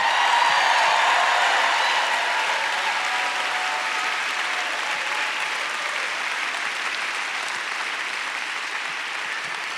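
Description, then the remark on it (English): A large church crowd applauds and cheers steadily, making noise for Jesus. The dense clapping is loud at first and slowly eases off over about ten seconds. “Let's make some noise for Jesus in this place.”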